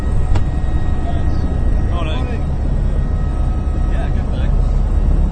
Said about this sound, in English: Getting into the helicopter with the blades whirling round really does make quite a racket, but soon you sit down, put your seatbelt on, and you put headphones on which muffles some of the noise.